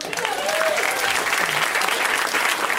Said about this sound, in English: Let's let's applaud for them.